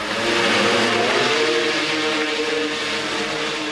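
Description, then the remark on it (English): A heavy Ukrainian bomber drone carrying a mortar shell lifts off with a loud, continuous roar of motors and a buzzing harmonic whine that holds steady throughout, heading toward a Russian position, with no voices. “It's big, it's loud, and it's heading straight to the Russian position.”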